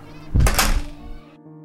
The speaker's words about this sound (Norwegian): lærerne gikk inn i klasserommet sitt, og så lukket de døren.